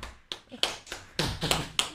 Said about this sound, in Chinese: 掌声，掌声如雷呀！